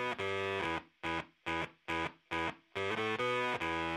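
Loud, heavily distorted electric guitar music, played in choppy rhythmic chords: a sustained opening, four short punchy stabs with silent gaps, then a longer sustained passage. No voices.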